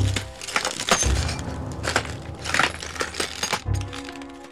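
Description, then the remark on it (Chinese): A crackling lightning and shattering smartphones effect: dense bursts of sharp snaps and glassy breaking clinks, punctuated by a few low thumping booms, loud and busy throughout with no voices. “这个时候突然出现了一道噼里啪啦的闪电。智慧型手机呀、啊，纹身全部通通都啪啦啪啦啪啦的破裂了。”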